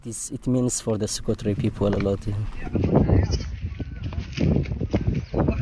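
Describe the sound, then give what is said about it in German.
Several goats bleat in quick succession, loud, with overlapping wavering calls for a few seconds before giving way to rougher, noisier background sound with voices. “Wir versuchen, die kleinen Setzlinge zu schützen, aber die Ziegen fressen praktisch alles weg.”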